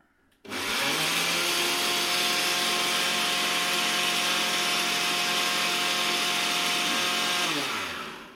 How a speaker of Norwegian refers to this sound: trenger du liksom ta mikken inn til eh, blenderen.